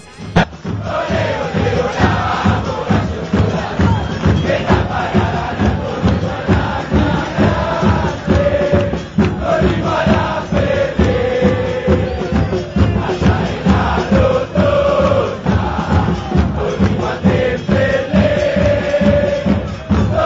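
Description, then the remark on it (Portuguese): A large crowd of Morón football fans sings the terrace chant 'Corrimo Almirante Corrimo a la Ferrer' in unison, loud and continuous, with a steady rhythmic beat of drums or stamping underneath for about twenty seconds. “Nós vamos ouvir a música do Moron que se chama Corrimo Almirante Corrimo a la Ferrer.”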